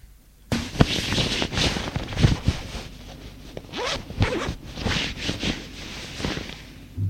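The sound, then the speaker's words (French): Clothing rustles and zippers rasp repeatedly in short bursts as a man undresses, with fabric shuffling between the sharp zipping sounds. No one speaks. “Il se déshabille.”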